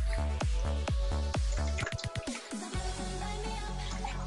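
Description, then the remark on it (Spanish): A run of wet gulping sounds, several swallows in quick regular rhythm, then a brief soft pause and faint room noise as a person takes a drink of liquid. “Voy a tomar un poquito de por mientras.”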